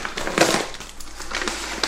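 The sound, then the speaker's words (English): Crisp rustling and crinkling of a little brown paper envelope being handled, with irregular scratchy bursts and soft rubbing in between, no voices present. “It's a little brown envelope.”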